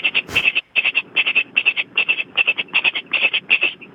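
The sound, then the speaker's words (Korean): A caller on a phone line mimics a pressure cooker cooking rice with their mouth: a steady, rapid train of sharp rattling hisses, loud, repeating evenly for several seconds without any talking. “압력밥솥, 어, 밥 짓는 소리 한번 해보겠습니다.”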